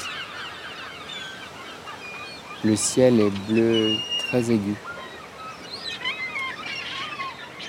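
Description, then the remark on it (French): A huge flock of gulls calls continuously in the background, many overlapping cries and squawks, while a person speaks briefly over them partway through. “Il y a énormément de mouettes.”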